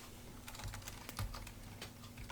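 Quick, irregular keystrokes clatter on a computer keyboard, typing H-E-Y, exclamation mark, space, L-E-T as input for a speech synthesis voice demo, about a dozen sharp clicks over two seconds, fairly quiet with a low hum underneath and no voices.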